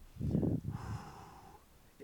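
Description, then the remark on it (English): A heavy breath rushes into the microphone in a loud burst, then trails off into a softer, airy wheeze that fades over a couple of seconds. No one speaks. “I think that may be me breathing.”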